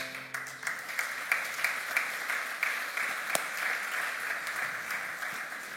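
Steady applause from a crowd after a prayer, a dense rattle of many hands clapping at once, holding a fairly even level throughout with a few sharper claps standing out. No one speaks.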